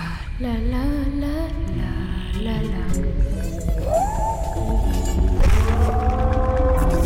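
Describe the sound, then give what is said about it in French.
The wings of a giant prehistoric dragonfly, the size of a falcon and about 70 cm across, buzz loudly and continuously as it flies low overhead in a swamp forest of giant ferns, a droning hum whose pitch wavers and glides upward, layered over a steady low rumble of wind. “Ça bourdonne tout autour de moi et le vent souffle dans cette forêt de fougères géantes.”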